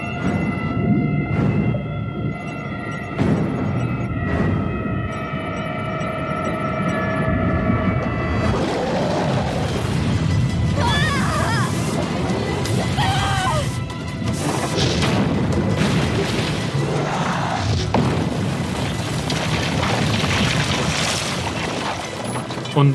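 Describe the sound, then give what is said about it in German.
The submarine Unicorn 1 of the Push-Up Squad crashes into the Christ statue in Rio: a steady mechanical hum with whining tones gives way to a long, loud crash of rumbling, grinding and metallic scraping that continues to the end. “was wir da gerade gehört haben, war das U-Boot Unicorn 1 der Push-Up Squad, ähm, als es in hohem Bogen gegen dieses Wahrzeichen von Rio knallt, ähm, diese, diese Jesus-Statue da oben.”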